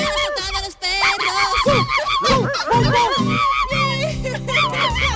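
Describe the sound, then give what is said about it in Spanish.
A person yelps and whines in a high, squeaky voice, imitating a poodle crying out, in rapid repeated bursts over overlapping chatter and noisy background commotion. “Sí, sí, Un perro que el sonido del caniche perfecto. Ahí hay un perro que, le están apretando el rabo o algo.”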